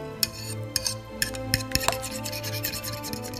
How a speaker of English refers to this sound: Scrub pots Sweep the floor. And clean the dishes.